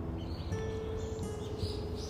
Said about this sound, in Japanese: 賑やかでしょ鳥さんが。